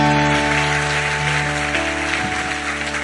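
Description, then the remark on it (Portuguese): An audience standing and applauding the Lord together in a dense, steady wash of clapping that holds throughout, with sustained keyboard tones humming underneath. “Vamos ficar em pé, vamos aplaudir o Senhor.”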